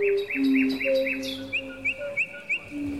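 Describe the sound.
A person whistles an imitation of nightingale song: a quick run of repeated bright chirps over sustained lower whistled tones, then several spaced sharp trills, fairly loud, with no talking.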